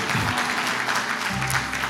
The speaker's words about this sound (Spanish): Santo Dios, yo no sé, hay más mujeres aplaudiendo que hombres.